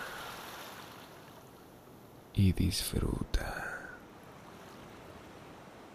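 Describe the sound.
A steady, soft wash of ocean waves at sunset fills the background without pause, while a voice speaks briefly partway through before the gentle surf continues on its own.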